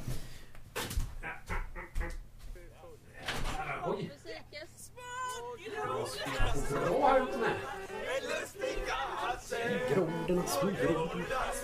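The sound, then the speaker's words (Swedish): A crowd of people chatting and laughing outdoors at a midsummer garden gathering, heard through an opened window, many overlapping voices, with a dog barking briefly and a door or window clattering near the start. “Nej, jag ska faktiskt gå ut i trädgården för jag har hela jävla trädgården full med folk. Jag ska öppna fönstret så ska ni få höra.”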